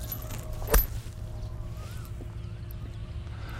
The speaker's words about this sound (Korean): 제가 지금 가지고 있는 9번 아이언을 가지고 자 모래의 양을 조금 더 조절하면서 스윙을 좀 크게 해봤더니 지금 한 30야드 정도 쉽게 빠져나가실 수 있는 거를 한번 확인하실 수가 있을 거예요